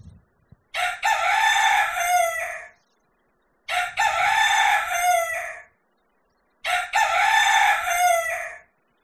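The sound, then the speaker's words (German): A rooster crows three times in a row, each long, loud cock-a-doodle-doo separated by short pauses, with no voices present. “Noch bevor der Hahn dreimal kreit, wirst du mich verleugnet haben.”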